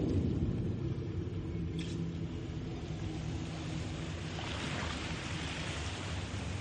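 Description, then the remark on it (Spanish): A wooden sailing frigate glides slowly through the sea at night, with a steady low rumble of water washing past the hull and a soft, continuous hiss of waves. No voices. “La fragata Surprise surca el mar lentamente.”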